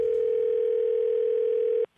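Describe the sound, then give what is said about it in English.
A steady, loud telephone line tone hums continuously for nearly two seconds before a prank collect call from overseas to a mother in the States, then cuts off abruptly into near silence. No one speaks. “Here we go Scary's award winning phone tap.”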